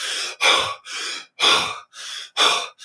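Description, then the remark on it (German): Fast, forceful holotropic breathing in a steady rhythm of loud, airy inhales and exhales, about two breaths per second without pause. It is clear, with no talking. “Und natürlich, umso tiefer man geht, wenn man sich wirklich so eine riesen Session macht, mit äh, zum Beispiel dem holotropischen Atmen, wo man dann wirklich”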